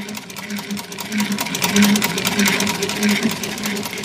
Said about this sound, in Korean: 여보, 집에서는 재봉질 그만하고 쉬어요.